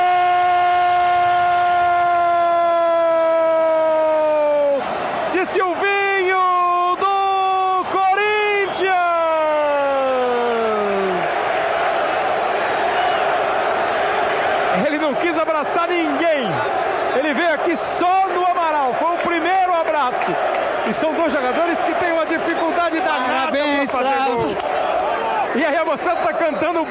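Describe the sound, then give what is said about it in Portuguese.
A stadium crowd roars and chants the name of Corinthians player Silvinho after his goal, Corinthians' sixth against Cerro in the Copa Libertadores. Wavering, sing-song voices rise over a dense roar, following an opening stretch of long, loud horn-like tones that slide downward. “Ele marca, a galera grita o nome dele.”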